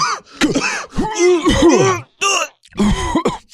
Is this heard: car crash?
no